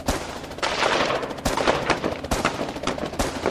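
Repeated gunshots crack out in uneven bursts, several sharp loud reports over a constant noisy background, as police open fire at the Fürstenfeldbruck air base shortly after a helicopter lands, sustained gunfire in an exchange of shots, with no talking.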